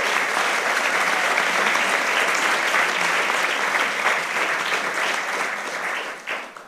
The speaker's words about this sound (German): Applaus für dich. Applaus